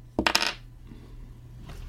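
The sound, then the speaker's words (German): Dice clatter across a hard table in a quick burst of sharp, rattling clicks, then settle into near silence with a faint tap at the end. No one speaks. “Gut, aber bevor das macht, muss ich mal was würfeln.”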